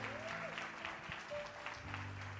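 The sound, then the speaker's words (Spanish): A church audience claps together, giving a loud round of applause to the Lord, in a steady, dense burst, the many overlapping claps forming a loud wash while sustained keyboard or organ tones hum underneath. “Alguien que lo está entendiendo que diga, aleluya, que le dé un aplauso fuerte al Señor.”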